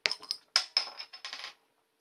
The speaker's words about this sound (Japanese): えー、今ですね、今夜用意しましたのは、えこれ何ハイトハイトって読むのかなえー、エクストラコールド生ビールを用意しております。では、これ瓶ビールなんですよね。では、開けていきます。